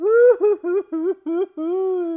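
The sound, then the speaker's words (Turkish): A narrator imitates crying, with a run of short wavering sobbing wails in quick succession, then one longer drawn-out wail at the end, fairly loud. “Kedi onları teselli etmeye çalışırken gözyaşlarından sırılsıklam olmuş ıslanınca o da başlamış ağlamaya”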